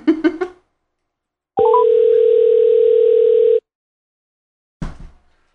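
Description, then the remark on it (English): A steady, loud telephone dial tone holds for about two seconds as a call is placed to a guest in Rochester, New York. There is a brief blip at its start, and short bursts of talk or laughter come before and after. “and we're gonna give her a call and get into this portion of the episode.”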